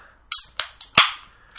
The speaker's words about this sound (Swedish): Jag ska öppna en öl nu, det kan behövas.